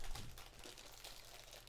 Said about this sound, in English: yes, they're eating on air. You can all hear the crumpling of the the, the wrappers.